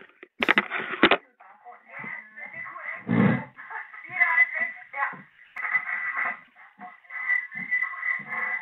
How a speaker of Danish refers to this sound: Oh, ja, ved du hvad, du skal lige slukke din radio i baggrunden, jeg ja, kan høre.